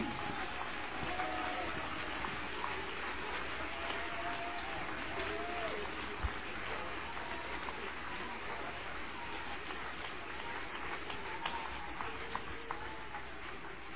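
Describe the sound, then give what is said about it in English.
An audience claps steadily for the whole stretch, a dense, even wash of many hands with a few voices calling out above it, never fading. “Come on, applause.”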